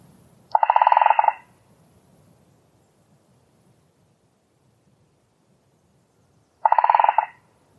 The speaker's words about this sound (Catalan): I ara escoltarem el Picot Garcer Gros, que veureu per què es diu Picot.